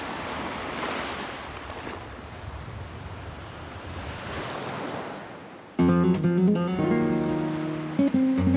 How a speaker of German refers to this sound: Nur beim Baden muss man etwas aufpassen. Das Meer ist meist wild und die Strömung stark. Aber was für ein wunderbarer Ort.